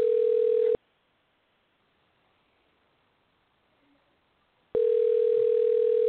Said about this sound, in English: That's the phone